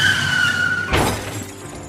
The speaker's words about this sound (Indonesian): Andre yang tidak fokus hilang kendali sehingga mobil mereka menabrak pembatas jalan dan mobil mereka masuk ke jurang.